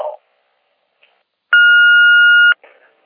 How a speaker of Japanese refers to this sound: ただいま、ポッドキャストトーク中で電話に出ることができません。ご用のある方は、ピーッとなりましたら、お名前とご用件を